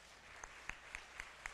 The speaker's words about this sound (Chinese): 好，我们请营长站起来，我们给她热烈的掌声哈。